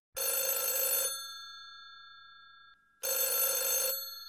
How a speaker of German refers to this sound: Moment mal, ich muss mal, ich muss mal ans Telefon, Verzeihung.